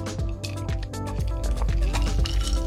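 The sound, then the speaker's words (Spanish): Wet gulping and liquid sounds from someone drinking water, a quick series of swallows and sloshes lasting a few seconds, with no talking. “Vamos a tomar un poco de agua.”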